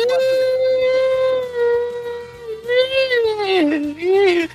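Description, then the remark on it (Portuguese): A long, drawn-out dog howl holds steady, then wavers and dips in pitch near the end, loud, over a soft, rhythmic banjo pattern, in a film chase scene with Nicolas Cage. “Essa é uma um cachorro, o é cachorro é mais uma, atacar ele.”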